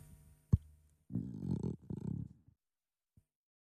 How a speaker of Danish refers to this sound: Er det dit mave? Ja.